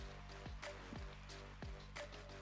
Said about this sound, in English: I'm going to take a drink of water for this one